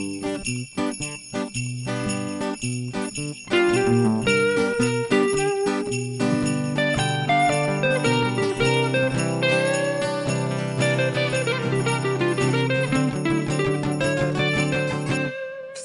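Jingling sleigh bells shake in a steady rhythm within loud, bright festive music, ringing continuously throughout with no one speaking.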